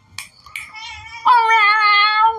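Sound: person imitating cat meows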